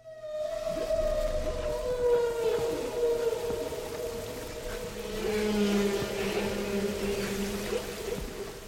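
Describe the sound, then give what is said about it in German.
Whale song: long, sustained tonal calls that glide slowly downward in pitch, overlapping with a lower moaning tone, steady and fairly loud with no speech. “Unverkennbar Wale.”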